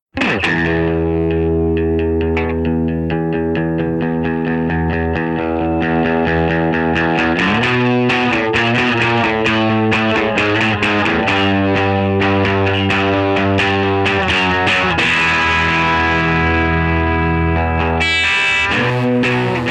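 A recorded pop song plays loudly and steadily for the whole stretch, with sustained harmonic chords, a pulsing rhythm and clear chord changes every several seconds, and no talking over it.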